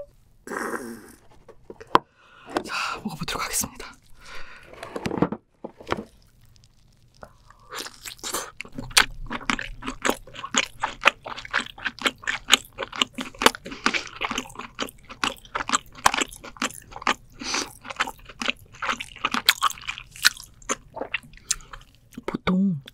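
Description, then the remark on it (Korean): Crunchy chewing of meat from a large lobster: dense, crisp bites repeating in a quick, steady rhythm for many seconds, fairly loud, after a few short mouth and breath sounds at the start. “이건 커서 그런지 짠맛이 많이 없고 사각사각 씹혀요.”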